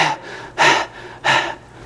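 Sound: imitated gasping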